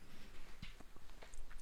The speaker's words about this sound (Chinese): 我都已经看到了，一边嚼的，听听声音。